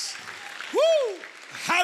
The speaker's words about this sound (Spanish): Aplaudimos fuerte al Señor una vez más.